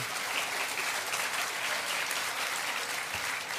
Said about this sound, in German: Warum, warum klatscht ihr da?